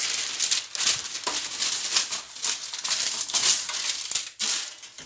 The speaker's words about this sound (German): Jetzt habe ich das Backblech und da drauf ist das Papier, das so ein bisschen knistert.